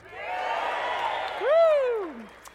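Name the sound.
audience cheering and applauding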